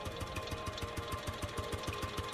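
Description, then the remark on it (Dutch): A courier's motorcycle approaching a barn: the engine putters with rapid, evenly spaced firing pulses and a rough mechanical rattle, holding steady and fairly loud with no voices. “Een koerier op een motorfiets naderde de schuur waar we de nacht hadden doorgebracht.”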